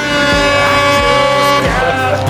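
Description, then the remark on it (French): A loud, sustained foghorn blast drones steadily for a couple of seconds, deep and brassy with a rich buzzing tone, holding without a break from start to finish. “Un petit coup de corne de brume pour vous accueillir ce soir.”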